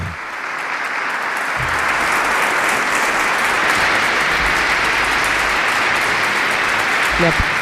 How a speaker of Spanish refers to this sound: aplaude este grupo representativo de sacerdotes de, Orense que están aquí en la ceremonia.